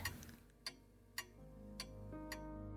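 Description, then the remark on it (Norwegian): A clock ticks four times at a steady, slightly slow pace, each sharp click standing out over a low, sustained musical drone. No one speaks. “Tikk takk, tikk takk, hvis vi vil.”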